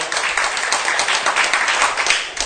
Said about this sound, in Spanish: un aplauso, por favor.